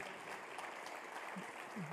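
An audience applauding God together, a dense, steady wash of clapping that holds at an even level throughout, with a few faint voices calling out underneath.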